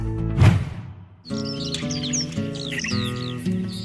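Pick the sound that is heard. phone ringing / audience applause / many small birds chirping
many small birds chirping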